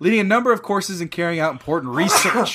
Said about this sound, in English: Bless you.